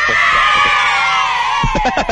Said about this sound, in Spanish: Oye, y se escucha un niño llorando, es que se acaba de que mi manito, este, no lo agarré bien y...